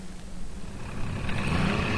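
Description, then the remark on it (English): The engine of a small blue motorboat leaving the marina in the morning drones steadily, a low rumbling hum that slowly grows slightly louder as the boat leaves splashing wavelets in its wake, with no voices over it. “A small blue boat leaving the marina has spoiled the tranquil morning and left splashing wavelets in its wake.”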